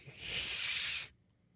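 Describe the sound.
A voice imitates an angry cat's hiss: one long, sharp, breathy hiss lasting about a second, fairly loud, then cutting off abruptly into near silence.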